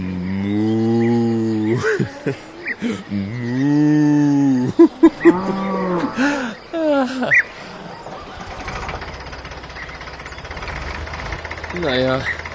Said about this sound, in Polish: Und die Kuh macht Mu.